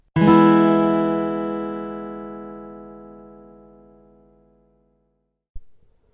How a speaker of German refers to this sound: Wir müssen also diesen Teil hier erstmal absetzen, aber ich mache mir eben einen Pausensound, damit die nächsten dann wieder zu hören, die diese Fragen jetzt umgangen haben.